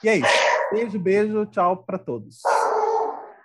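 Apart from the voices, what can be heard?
dog barking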